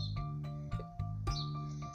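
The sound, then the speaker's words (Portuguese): A sparrow, perched on top of a pole, chirps in short, repeated bursts over a steady low droning hum with no voices. “Pardal cantando em cima do poste.”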